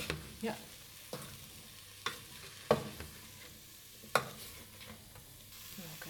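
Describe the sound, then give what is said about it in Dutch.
Vegetables, including onion and garlic, sizzle and fry in a pan on turned-up heat, with a steady crackling hiss broken by several sharp scrapes and clacks of a utensil stirring them. Moderately loud, no talking. “roeren, Ik zet hem even wat hoger ook, dat hij een beetje goed kan bakken.”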